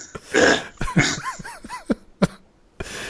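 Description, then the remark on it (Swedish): A voice mimics a drunk's throat clearing: a harsh raspy hack, then a string of gurgling, rising-falling grunts and a final sharp clearing sound, fairly loud with no words. “alkis, alkis, harklar. Eller liksom så här, fylle harklar och bara...”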